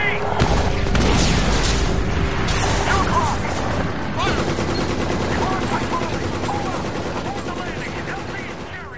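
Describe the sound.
Loud, dense battle noise from the video game Medal of Honor: an RPG rocket explosion and rapid gunfire with booming blasts pile up in a chaotic wall of sound, with shouted voices mixed in, gradually easing off toward the end.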